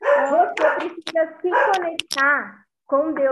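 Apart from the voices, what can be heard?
dog barking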